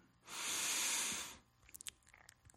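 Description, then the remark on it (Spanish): A single deep breath drawn in, loud, a steady airy rush lasting just over a second, followed by quiet with a few faint soft clicks; the last breath of a guided breathing exercise. “Toma una última respiración.”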